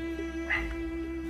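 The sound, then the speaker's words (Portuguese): A dog gives a single short bark over a steady low electrical hum, with no one talking. “Me desculpe pessoal, tem uns cachorros latindo aqui.”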